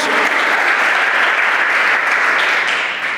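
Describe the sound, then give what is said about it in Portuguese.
An audience applauds steadily, a dense wash of many hands clapping at an even, loud level that eases off slightly near the end. No voices stand out above it. “Ah, você podia dar um aplauso a ele por isso aí, ué?”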